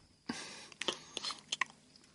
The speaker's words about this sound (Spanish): mastica